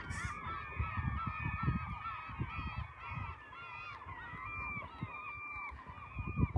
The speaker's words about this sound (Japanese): すごい聞こえますかこのカモメの大合唱です。